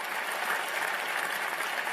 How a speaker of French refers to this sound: Je suis votre porte-parole, je le vois bien puisque vous applaudissez ce que je viens de dire.